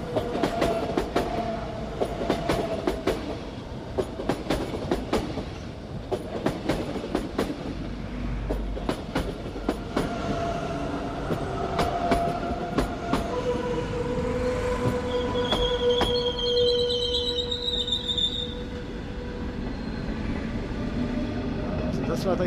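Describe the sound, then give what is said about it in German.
An InterRegio passenger train rolls past at close range, its wheels clattering in a rapid, irregular rhythm over the rails, with tonal squeals and hums rising toward the end. “Und jetzt kommt gerade der andere Interregion, da hören wir das ganz nah noch.”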